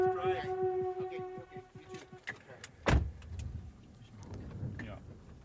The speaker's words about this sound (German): Wir sind gerade in einem Auto, in dem die Klimaanlage sehr laut angemacht wird, was nicht geht.